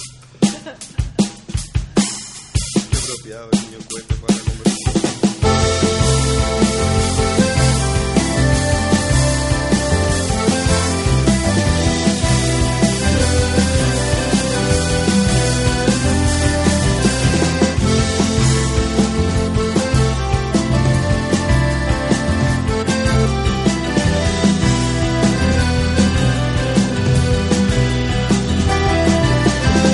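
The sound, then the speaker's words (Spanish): Music plays on the radio steadily and loudly for the whole stretch, opening with a few sharp percussive hits before a full, rhythmic band arrangement kicks in and carries on without pause. “nos vamos a escuchar un poco de música”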